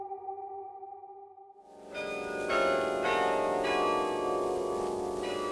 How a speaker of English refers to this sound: The bells in the church tower have been pealing over the city for an hour.